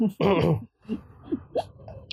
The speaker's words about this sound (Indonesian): kita lagi jadi sobat batuk iya sobat batuk tuk tuk tuk tuk tuk